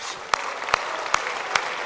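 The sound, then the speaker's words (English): An audience claps hands in praise of the Lord Jesus, four sharp claps in unison landing at a steady, even beat over a continuous wash of scattered clapping and room noise. “a hand clap of praise.”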